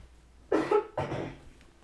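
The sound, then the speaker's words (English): Two loud coughs in quick succession, the first with a double burst, then a rougher second one that trails off, with no talking. “Sorry, I keep coughing.”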